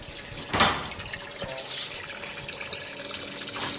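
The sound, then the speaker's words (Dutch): Water sloshing and trickling in a sand-filled tidal model tank that a hand crank tilts slowly back and forth like a metronome, creating ebb and flood currents as in river estuaries, with a sudden louder splash near the start and a steady wash of liquid noise, small drips and gurgles throughout. “Hij kan heen en weer kantelen en daardoor ontstaat er eb- en vloedstroming het land in.”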